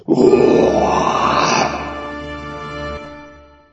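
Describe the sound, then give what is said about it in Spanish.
A lion caught in a hunters' trap gives a single loud, rumbling roar, drawn out, holding strong for a moment before tapering off into a fading growl. No one speaks. “Desesperado porque no podía zafarse de esa trampa, rugió.”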